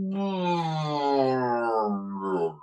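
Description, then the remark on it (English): A voice imitates a Hammond organ cutting out as its lead is pulled out to end a song: one sustained, buzzy tone that slowly sags lower in pitch for about two and a half seconds, then drops away abruptly. “We faded, we, we ended the song by pulling the lead out of the Hammond organ.”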